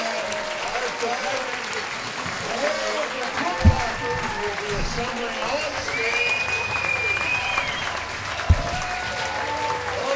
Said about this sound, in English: And a great one for Santa Rosa. Down two to nothing. You get the big inning in the sixth inning, and the crowd's going to give the Packers a standing ovation. Let's listen to this.